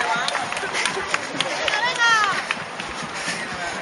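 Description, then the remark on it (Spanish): Running footsteps of a runner and other passing runners patter steadily on dirt and asphalt, a busy, overlapping rhythm of many strides, with a murmur of voices and a brief rising whistle-like tone partway through. “La suma de todas esas pisadas sobre la tierra y asfalto termina creando una canción muy nuestra”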